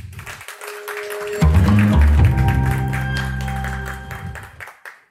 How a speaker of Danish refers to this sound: give en rigtig stor hånd til Skuespilhuset og til skuespilchef på det Kongelige Teater, Morten Kirkskov.